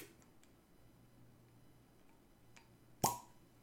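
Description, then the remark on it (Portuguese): After a few seconds of near silence with faint small ticks, a cork pops out of a wine bottle in one sharp pop that fades quickly. No one speaks. “Vamos ver como é que ele sai. Sai todo embolado.”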